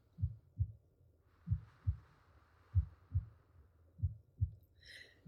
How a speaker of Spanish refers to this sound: Coloca tu atención en tu corazón. Siente los latidos de tu corazón.